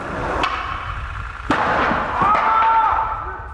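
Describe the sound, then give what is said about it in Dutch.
Skateboard wheels come down hard on stone pavement as a skater lands a second attempt cleanly: two sharp, loud clacks about a second apart, followed by a steady gritty rolling rumble with a faint whine near the end. “Want je hoort eigenlijk al half links dat cleaner, dat eh, cleaner is en dat de wielen eigenlijk al op de stenen komen.”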